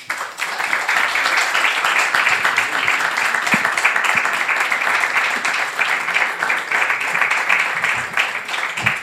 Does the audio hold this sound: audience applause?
yes